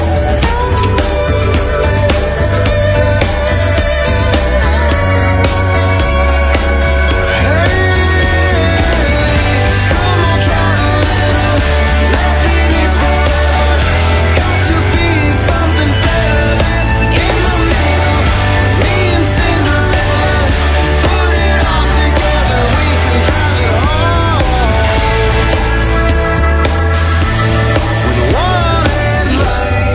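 A rock song plays steadily throughout, with a full band sound: driving drums, bass, guitars and a melodic lead line, loud and continuous with no talking over it.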